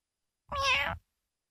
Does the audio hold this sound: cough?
no